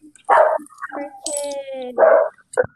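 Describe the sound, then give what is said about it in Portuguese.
A dog lets out two sharp barks separated by a drawn-out whining whimper, then ends with a quick high yip. “Cachorro.”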